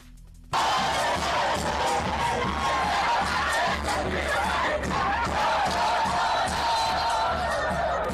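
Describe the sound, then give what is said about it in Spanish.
A large group of Cruz Azul supporters chants loudly and steadily in unison at the La Noria facilities, an offensive chant referring to América; a dense roar of many voices with a rough, rhythmic pulse that starts suddenly and carries on to the end. “Bueno, ahí escuchamos, esto fue el pasado viernes, donde integrantes de las barras de Cruz Azul acudieron a las instalaciones de la Noria y realizaron un cántico que se refiere a la América y bueno, pues es ofensivo.”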